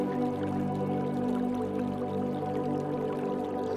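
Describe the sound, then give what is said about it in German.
Water trickles steadily over a shallow streambed in a forest, a continuous babbling with soft drips and gurgles and no voices. “Deshalb steigst du einfach über den flachen Strom und läufst ein Stück am Wasser entlang.”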